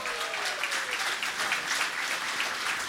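Steady crowd applause, a dense wash of many hands clapping at a loud, even level throughout, with a brief faint whistle-like tone near the start.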